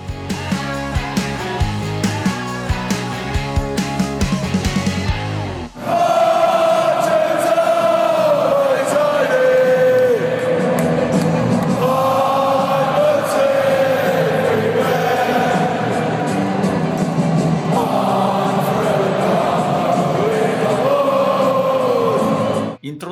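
A brief stretch of instrumental music cuts off, then a huge crowd of football fans sings their club anthem in unison, a slow rising-and-falling melody carried loudly over roaring stadium noise.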